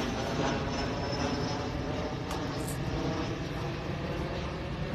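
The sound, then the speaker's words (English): An airplane drones overhead in a steady, broad rumbling roar that holds at an even, fairly loud level for the whole stretch, with no voices over it. “The plane above.”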